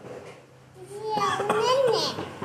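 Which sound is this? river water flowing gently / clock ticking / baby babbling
baby babbling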